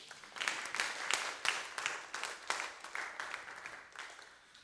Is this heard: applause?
yes